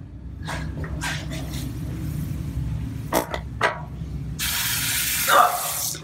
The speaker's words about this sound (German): Da geht das Wasser an. Da muss man aufpassen.